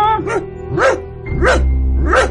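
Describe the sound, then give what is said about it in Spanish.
A dog barks four times in a fairly steady rhythm, each bark loud and slightly yelping in tone, with a low rumble running underneath. “No, no, perrito, por favor, ya no te muevas tanto, por favor, por favor, perrito.”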